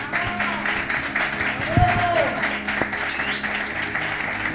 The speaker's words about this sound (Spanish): Fuerte aplauso.